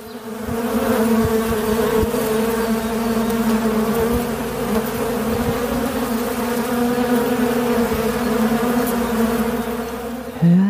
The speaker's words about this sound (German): Nein, das sind Bienen.